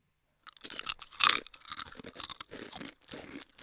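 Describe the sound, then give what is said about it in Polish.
Crunching and chewing of puffed triangle chips: a run of dry, crackly bites with one sharp, loud crunch early on, followed by steady, irregular munching with no talking. “Dlaczego lubimy chrupać?”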